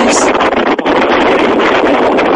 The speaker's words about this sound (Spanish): Se escuchaba el sonido del viento, como bien escuchaban ustedes